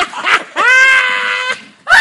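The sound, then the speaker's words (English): A voice imitates the loud scream of a woman in a Westeros story who screams while making love to her husband: a short shriek, then a long sustained high-pitched wail lasting about a second, followed by another brief loud burst. “So the next scene we see, Sansa can't even sleep because this bitch is screaming.”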